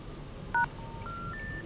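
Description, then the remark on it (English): A single short, loud phone keypad tone beeps, then a sequence of steady electronic tones steps upward in pitch over a faint background hum. No one speaks. “All circuits are busy.”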